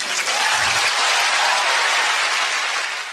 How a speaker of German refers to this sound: sagt Bundeskanzlerin Merkel unter Applaus von jungen Studenten in Harvard.